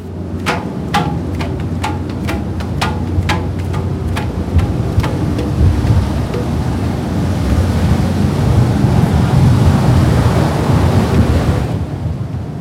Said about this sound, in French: des chaises longues sur la terrasse à ciel ouvert, soufflées par les bourrasques une fois le bateau lancé au large, enrubanné dans un fin voile de fumée odorante dispersée par les cheminées.